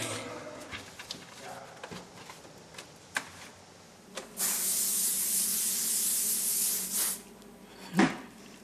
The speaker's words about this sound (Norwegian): Underkårspray i dag, tror jeg.